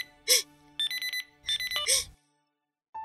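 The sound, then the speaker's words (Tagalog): A mobile phone ringtone for an incoming call from the father chirps in two quick bursts of bright, warbling electronic tones, with short breathy sounds between them, then falls silent before a faint tone begins at the end. “Si tatay tumatawag.”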